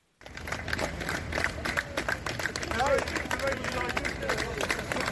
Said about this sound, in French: Ces applaudissements, ce sont ceux des bénévoles mobilisés par la mairie pour immédiatement déblayer et brûler les habitations de la ZAD. Dans cet extrait du média local Le Journal des Sables, ils applaudissent les voitures de la gendarmerie.